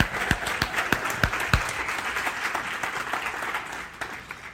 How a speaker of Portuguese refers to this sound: É de Deus. Aplauda ao Senhor.